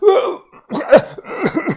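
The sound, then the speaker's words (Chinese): A voice imitating the hoarse, strained coughing of an old man who has fallen to the ground after being choked and is clutching his throat: three rough, raspy bursts in quick succession with short gaps between them, fairly loud and with no other sounds around them. “捂着自己的脖子，不断咳嗽着。”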